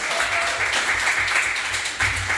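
A live audience at the Phoenix venue applauds steadily, a dense wash of many hands clapping at an even loudness throughout, with no one speaking over it.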